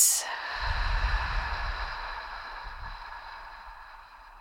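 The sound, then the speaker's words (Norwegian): A slow, drawn-out breath out over a count of six during a breathing exercise, a soft breathy hiss held for several seconds that gradually fades, with no talking. “Og så dobler du ut, så puster du ut på seks.”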